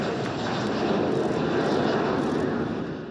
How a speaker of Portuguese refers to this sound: Partiu hoje do Brasil o primeiro avião da Força Aérea que vai resgatar pelo menos 64 pessoas na Polônia. O avião decolou de Brasília às 13h15 da tarde.